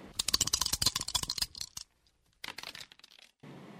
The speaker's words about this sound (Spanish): Ahora nuestra invitada, Mónica Vergara Rubio, entrenadora de la selección mexicana femenil de fútbol, ha lanzado los dados